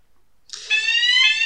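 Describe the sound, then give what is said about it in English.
A loud, shrill fire alarm tone switches on abruptly after a brief quiet moment and holds steady, its piercing pitch stacked with bright harmonics, insistent. “The fire alarm's going off.”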